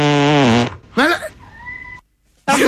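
A long, loud fart with a tonal, whining pitch that bends like a cat's meow, broken into several drawn-out bursts separated by brief pauses.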